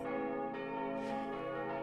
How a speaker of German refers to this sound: Im sechsgeschossigen, seit der jüngsten Kirchenrenovierung wieder in frischem Gelb-Weiß über den Markt grüßenden Satteldachturm läuten vier Glocken.